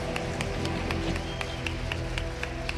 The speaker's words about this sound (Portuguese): Diga glória a Deus. Aplauda o Senhor bem forte. Eu quero ouvir as palmas.